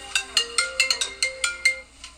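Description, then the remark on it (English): A phone ringtone plays a quick, bright melody of about nine chiming notes in an uneven rhythm, moderately loud, with no one speaking over it. “Sorry vibrate. You are saying? Being rudely interrupted.”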